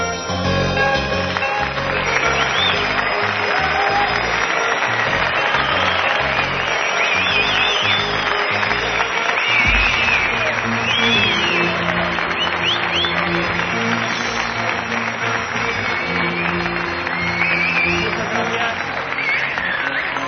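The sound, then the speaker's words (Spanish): A large crowd applauds steadily and loudly at the Palacio de Congresos Europa during a live Milenio 3 show, dense clapping filling the packed main hall and two overflow rooms for about twenty seconds, with occasional cheers and voices rising from the audience. “Así suena el Palacio de Congresos Europa, hemos tenido que habilitar no solo eh, la sala principal que estaba prevista para esta gran cantidad de amigos, sino dos salas paralelas que están a rebosar”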